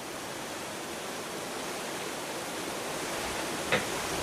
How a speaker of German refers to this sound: hier ist irgendwo ein Rohr geplatzt. Hier steht Wasser im Flur.